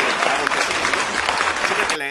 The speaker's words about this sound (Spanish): Aplausos, malditas sea